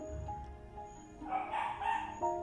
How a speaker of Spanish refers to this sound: y lo que escuchan son los perros. Este, que no sé por qué están ladrando, o probablemente sí, ya saben, los vecinos latosos.